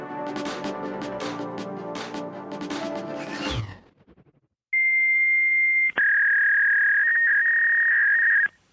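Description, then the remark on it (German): Fax machine dialing and handshake tones: a few seconds of harsh, pulsing electronic warble, a brief gap, then long, steady, piercing high tones, loud with no voices. “Das Geräusch vom Faxgerät in den 80er Jahren ist es in die Büros gekommen und dort zum Teil immer noch im Einsatz,”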